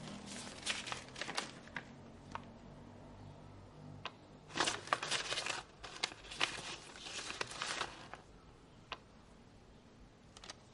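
Soft rustling of a bundle of handwritten letters on notebook sheets being handled as someone sits on a bed reading them, with intermittent crinkly bursts in short clusters and quiet pauses between. No one speaks.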